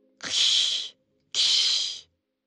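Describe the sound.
Two sharp, breathy hisses, each lasting under a second with a short pause between, like a person spitting and hissing in imitation of an angry kitten. Fairly loud, with no talking.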